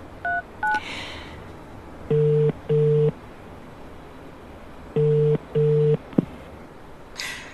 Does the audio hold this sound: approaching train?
no